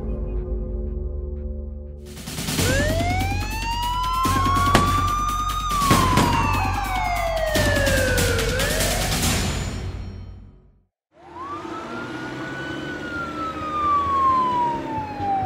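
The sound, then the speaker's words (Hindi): A police car siren wails with long rising and falling sweeps, loud over a rumbling engine, cuts out briefly around eleven seconds, then starts climbing again, as the police car, having left the highway, heads toward Rewari district. “police की गाड़ी highway से उतर चुकी थी और रेवाड़ी डिस्ट्रिक्ट की तरफ बढ़ रही थी”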